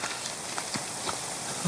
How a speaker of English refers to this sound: And these are hikers out on a trail with their new gear from REI.